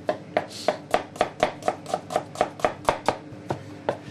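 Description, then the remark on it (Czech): A knife chops tomatoes for a sauce on a board in a boat's kitchen, in a steady, even rhythm, about sixteen crisp thuds in four seconds, each with a short wet crunch. No one speaks. “Tak, to máme pak na ty rajčátka, ještě si nakrájíme pak na tu omáčku trošku.”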